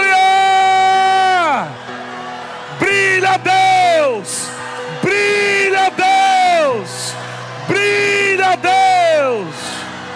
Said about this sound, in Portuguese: Você pode perceber que a onda da unção está aumentando. À medida que a igreja vai dando aleluia, é como se você estivesse chamando ele.